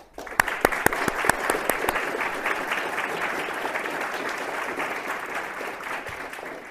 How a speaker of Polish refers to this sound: chciałbym, żebyśmy nagrodzili go oklaskami